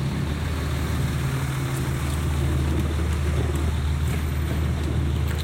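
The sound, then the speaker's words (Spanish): A garbage truck's diesel engine rumbles loudly as it is passed right alongside, a steady low droning hum with broad mechanical noise that holds even throughout, with no voices. “vamos, a pasar justo al lado del camión de la basura”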